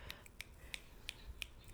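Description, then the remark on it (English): Fingers snap in a steady rhythm, about six crisp, quiet clicks roughly a third of a second apart, with no voices over them. “I'm snapping my fingers.”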